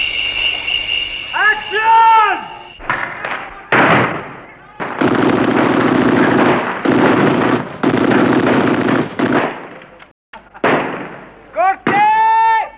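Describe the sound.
Loud, rapid bursts of gunfire crack out one after another as two men fire indiscriminately from a balcony over a Mexican village square during an insurrection, some merging into sustained volleys, with brief pauses and wavering voices or whistling tones at the start and end.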